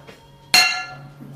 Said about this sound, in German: Das war sehr deutlich. Eine, Was war es denn? Das war eine Pfanne.